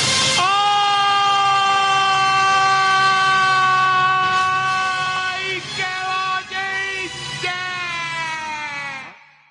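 An ambulance siren blares loud, holding a steady, piercing tone for about nine seconds with a few brief dips in pitch before cutting off.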